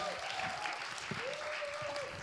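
Steady, dense clapping fills the whole stretch as a continuous crackling patter with no clear pauses, while a faint voice hums along underneath.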